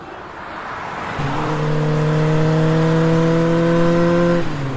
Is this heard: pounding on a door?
no